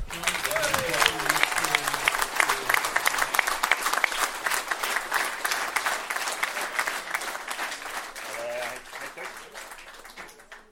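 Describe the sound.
A crowd at a gathering at Aspbøgen claps steadily for about ten seconds after a toast, dense overlapping applause that stays strong before tapering slightly at the end, with a few voices briefly audible underneath.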